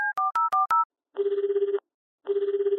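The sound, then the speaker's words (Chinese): Five quick two-tone keypad beeps dial a telephone call to the police, then the telephone rings twice with long, buzzy, warbling bursts separated by a short pause. No voices are heard. “哎，赶快打电话给警察伯伯了，邪恶狗出现了。”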